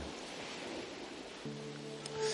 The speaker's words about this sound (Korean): 아유, 예. 파도 소리 뭡니까 예.